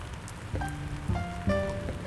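Steady rain patters and hisses in the background, a constant wash of sound, while three clear ringing tones sound one after another over it. No one speaks.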